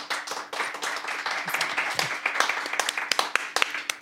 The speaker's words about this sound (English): Let's begin by giving a round of applause to this gentleman with the microphone